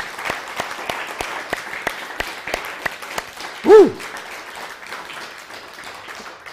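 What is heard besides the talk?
audience applause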